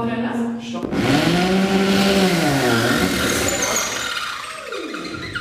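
A power drill whirs loudly, its motor pitch rising and dipping as it bores into a wall, then winding down with a falling whine.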